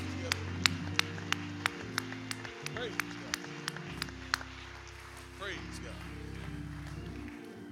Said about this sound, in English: I tell you what, as we transition, let's just give the Lord just a hand clap of praise because He is in this hour.